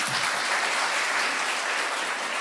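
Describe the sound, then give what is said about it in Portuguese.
A church audience applauds two volunteers who came forward, clapping steadily, a dense wash of many hands at an even loudness with no pauses, a continuous crackling roar that holds for the whole stretch. “Salva de palmas para eles.”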